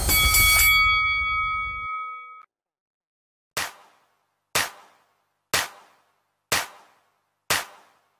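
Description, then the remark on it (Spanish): A loud, clanging bell strike rings out with a sustained metallic tone, followed after a pause by five sharp, evenly spaced dings about a second apart, with no voices. “y que suene la campana.”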